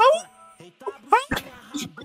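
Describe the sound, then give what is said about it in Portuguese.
At an event, a person imitates a dog's howl with a few rising, wavering vocal cries and yelps, loud, broken by short gaps and laughter-like bursts. “Porque ele começou, mano, a uivar no evento.”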